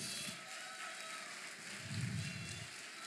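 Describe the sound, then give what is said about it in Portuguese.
A church audience applauds the entrance of 'King Jesus', a dense, even patter of many hands clapping that holds for the whole stretch, swelling slightly partway through with a low rumble, and no one speaking over it. “Vamos aplaudir a entrada do Rei Jesus agora.”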